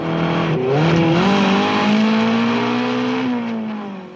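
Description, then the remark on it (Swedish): The engine of a motorcycle with a sidecar roars loud as it catches up with a Lotus car in a chase, its pitch climbing as it accelerates hard, then holding a steady high drone before easing slightly at the end. No one speaks. “en MC kommer ifatt och avlossar en missil som är inbyggd i sidovagnen.”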